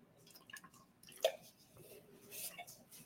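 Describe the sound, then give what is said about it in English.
Quiet sipping from a can of Crescent Canna THC seltzer: a small sharp click, then soft slurping and fizzy liquid sounds, with no talking. “All right, I'm gonna have a little bit of my uh, Crescent Canna THC seltzer, as I like to refer to it, weed water.”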